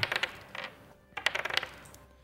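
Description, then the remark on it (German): Two dice clatter across a hard tabletop in two quick bursts, a rapid series of sharp little clicks and bounces settling after a brief pause, fairly quiet with no talking. The dice are rolled for a survival check with advantage, taking the higher of the two. “Äh, wieder mit Vorteil, also zwei Würfel und den höheren nehmen.”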